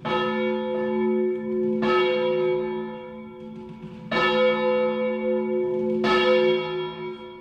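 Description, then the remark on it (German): Large bells of the cathedral in Valencia, Spain, toll in a slow, steady sequence, each deep strike blooming into a long, rich ringing that overlaps the next. No voices, just resonant bell tones filling the space. “Ihr hört schon, wir sind in der Kathedrale La Sioux.”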